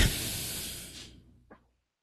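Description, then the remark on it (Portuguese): An agitated cat hisses: one long, harsh, breathy hiss that trails off over about a second, followed by a short, sharp second puff. No one speaks. “Tá até um gato descontrolado aqui.”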